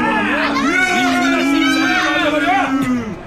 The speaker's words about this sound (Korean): 아, 관중들의 야유가 대단한 가운데 3루에는 마동탁 선수가 늠름한 모습으로 수비 자세를 갖추고 있습니다.